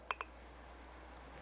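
Two quick clinks of glasses of watermelon juice touching in a toast ring out close together with a bright, short chime, then fade into a quiet hum.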